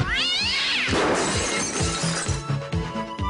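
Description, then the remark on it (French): A cat lets out a loud, wavering yowl as it is kicked, then a burst of crashing, clattering noise follows with a run of rhythmic low thumps. “Pour les chats qui en ont jusque-là des pâtés pour chats, Fido a créé le coup de pied au cul.”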